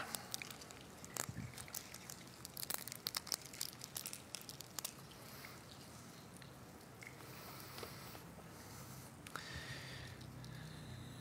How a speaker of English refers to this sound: Let's take the cup if you can peel the top off of it.